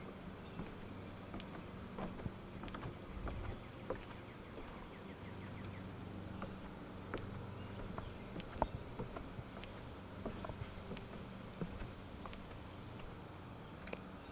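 Footsteps going down stairs: a run of soft, irregular thuds and scuffs over a steady low rumble, with a faint buzzing hum in the background and no voices.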